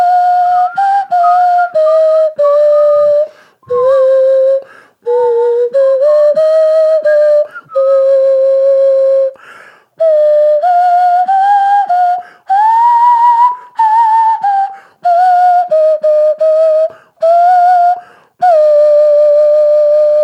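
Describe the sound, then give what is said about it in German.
A nose flute, called a genuine Stradivari nose flute, plays the second verse of a tune: a breathy, whistle-like melody of sustained notes in short phrases, gliding between pitches in a fairly high register. It's loud and steady for about twenty seconds, with no talking. “Ist das eine echte Stradivari-Nasenflöte? Das ist eine echte Stradivari-Nasenflöte.”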